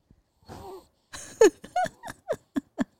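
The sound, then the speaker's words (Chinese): A sleeping baby makes a run of short, puppy-like whimpers: a soft murmur first, then about six quick high-pitched yips and squeaks in a loose rhythm, with no talking. “而且我的炸弹一直发出狗狗声，听到吗？”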